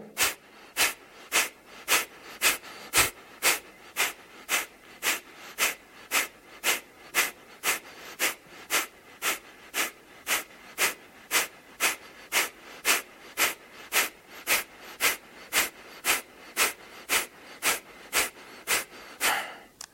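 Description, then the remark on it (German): Rapid, forceful breathing in and out in a steady rhythm of roughly two breaths per second for the whole stretch, with no talking. “Und dann wieder normal atmen. Und noch ein letztes Mal.”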